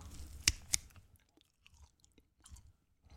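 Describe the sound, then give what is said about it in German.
Chewing and tearing of a completely dried tomato, not in oil, opening with two sharp crunchy bites, then quieter irregular mouth sounds and soft chewing, with no one speaking. “das war jetzt eine getrocknete Tomate.”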